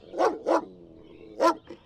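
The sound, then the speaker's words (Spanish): Dogs bark in short, sharp bursts: two quick barks, a brief pause, then two more, the last one softer. The barking is clear, with no voices. “Sigan a Francis, traigan a los perros.”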